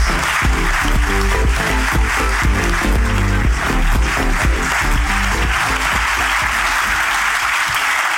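An audience applauds steadily for about eight seconds, a dense, loud wash of clapping with no letup, while a musical backing plays underneath. No one speaks.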